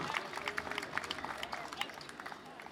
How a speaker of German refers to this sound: Einmal einen fetten Applaus